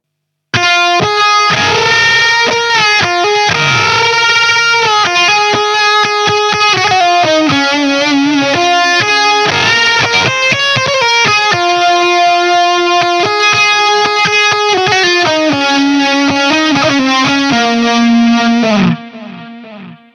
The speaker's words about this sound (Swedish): Fuzzface, Univibe. Vi kopplade upp en … eh, 1969-rigg. ja, perfekt. Ja. Så här låter det isolerat. Brinner rätt bra i det här.